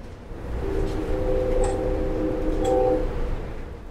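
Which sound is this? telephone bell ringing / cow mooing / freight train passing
freight train passing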